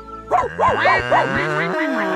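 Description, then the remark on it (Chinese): A voice imitates the bleating of a little goat named Jidi: four quick, wavering, nasal bleats in a row, then a longer trailing bleat, fairly loud and heard on its own. “我们模仿基地的声音，他听到了就会把我们当成小羊，就会来找我们玩儿了。”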